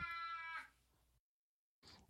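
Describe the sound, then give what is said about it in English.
A hungry pet cat, Bernie, gives a drawn-out, insistent meow, then after a brief silence starts another short meow. No one speaks. “And apparently, my cat is hungry.”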